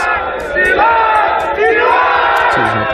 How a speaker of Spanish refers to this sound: el descontento, desde luego, va creciendo, cada vez hay más manifestaciones y más masivas contra la situación de confinamiento que se vive en muchas ciudades. Este es el sonido de una de esas protestas.